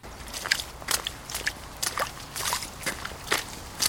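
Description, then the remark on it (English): A layered cave ambience made of irregular crunchy, crackling bursts, something like footsteps on gravel and drips, scattered unevenly over a faint low rumble, with no voices; built by layering six different sounds found on Freesound under the words cave and cavern. “I started searching for the word cavern. And I actually ended up layering six different sounds all together.”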